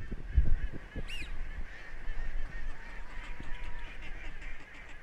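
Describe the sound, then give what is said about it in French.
Teal ducks whistle and call in a steady outdoor chorus, with a brief sharper high whistle near the start over a constant background of water and low rumble. No one speaks. “Les petites sarcelles, ça siffle.”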